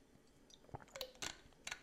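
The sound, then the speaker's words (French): Someone takes a quick sip from a small water bottle: a few soft clicks and wet mouth and swallow sounds, with no talking. “J'ai la voix arrachée donc vous me permettez je bois une gorgée.”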